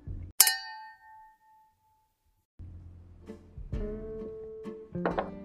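A single bright clink of glasses touching in a toast, its ring hanging and fading over a second or so, followed by quieter low rumbling and murmuring sounds.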